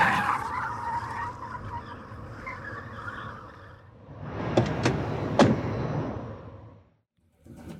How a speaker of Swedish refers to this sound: Han, full fart, skrikande däck, bromsar in här vi är.